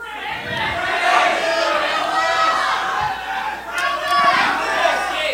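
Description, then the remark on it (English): A live audience shouts and chants together, a dense roar of many voices rising and falling steadily for several seconds, with sharper individual yells cutting through near the end. “I'm hearing a lot of Crandis.”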